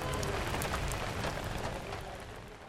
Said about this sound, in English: and RP heads back out into the monsoon rain.